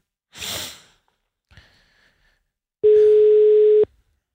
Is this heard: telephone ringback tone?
yes